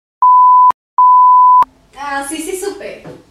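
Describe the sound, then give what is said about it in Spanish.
Two loud, steady censor bleeps covering a name, in quick succession, each about half a second long with a brief gap between, followed by a person talking. “y, y, lo editamos. Total, lo vipeamos.”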